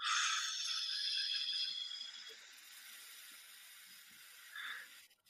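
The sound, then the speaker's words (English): A long, steady breath blown out through pursed lips with a little resistance during a relaxation breathing exercise, a soft airy hiss that starts stronger and gradually fades, with no talking. “and purse your lips and have a little resistance as you blow it out.”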